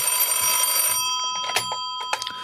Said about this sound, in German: Geh ans Telefon und lass die Zärtlichkeiten.